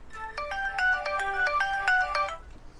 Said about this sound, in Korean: 국진원과의 통화가 끊어지자마자 다시 핸드폰이 울렸다.